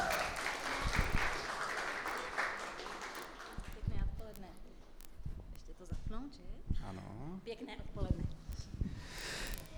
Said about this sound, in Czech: Můžeme je přivítat potleskem.